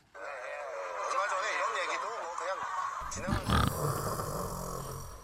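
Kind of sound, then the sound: vocal imitation, voice imitating loud snoring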